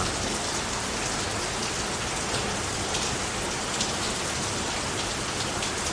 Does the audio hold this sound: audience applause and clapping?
no